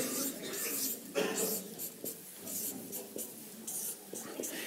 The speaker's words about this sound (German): Oh, das scheint schon schwieriger für manche zu werden, aber ich habe es ich hab's gehört und schreibe es auf.